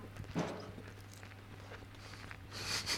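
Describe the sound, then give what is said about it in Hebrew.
Crunchy chewing of a bite of lahmajun, with a few irregular crackling bites and a louder crunch near the end over a low steady hum. No one speaks. “וואי, איזה רעש של הביס יש לך?”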